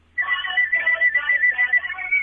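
Phone ringback music plays steadily after a brief silence, a bright, tinny melody with fluttering high notes and no talking, a caller ringtone heard down a phone line while waiting for the call to be answered.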